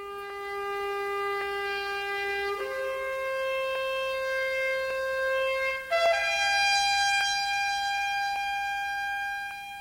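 A recorded album song by a traditional-music singer plays, opening with long held melodic notes that shift to a new pitch every couple of seconds, steady and fairly loud, with no singing yet.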